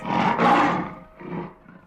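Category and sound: animal, lion roaring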